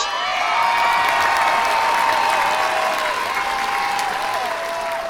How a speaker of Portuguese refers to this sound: Salve de palmas.